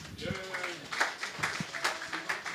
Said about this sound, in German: Applaus für die ersten drei Punkte des Abends.